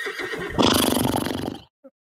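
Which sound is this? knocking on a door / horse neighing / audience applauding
horse neighing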